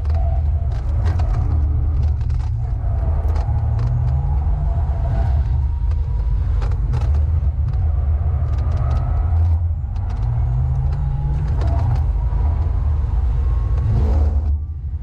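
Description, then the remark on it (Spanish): A Porsche sports car engine roars steadily at high revs with a heavy low rumble during a lap around the Nürburgring, its pitch rising and falling through gear changes, loud and continuous without any talking. “También sacaron un video desde la cuenta de Porsche de YouTube eh, presumiendo esto y pues aquí les dejo un cachito de esa, vuelta alrededor de, de Nürburgring para que ustedes me digan qué prefieren escuchar.”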